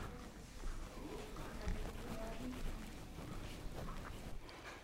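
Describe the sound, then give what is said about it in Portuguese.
Bread dough made with pumpkin, egg and flour being kneaded by hand: soft, irregular squishing and dull pressing sounds over quiet background noise, with no one talking. “Agora nós vamos amassar.”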